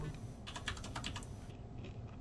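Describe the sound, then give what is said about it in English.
A quick run of about eight or nine crisp key taps on a calculator in a brisk uneven rhythm as someone works out a math calculation, then a few fainter clicks trail off against low background hum. No one speaks. “So, I mean, you take um, let me pull up a calculator real quick because I can't do that math in my head.”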